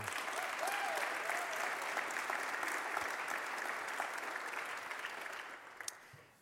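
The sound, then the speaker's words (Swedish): Warm, sustained applause from an audience for two folk high school students coming forward, a dense steady patter of many hands clapping that holds strong for several seconds before gradually thinning and fading out. “Och ehm, jag tycker att det är frimodigt av dem, så jag tycker vi ger dem en varm applåd.”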